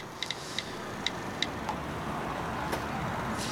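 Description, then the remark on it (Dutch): Someone typing on a phone in a YouTube video clip: a handful of light, crisp taps at an uneven pace, fairly quiet, over a steady low background hiss, with no voices. “Je iemand typen op een telefoon.”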